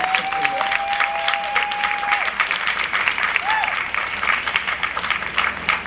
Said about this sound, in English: And so I want to ask you to just give yourselves a round of applause because many of you were part of the ones who made that possible here.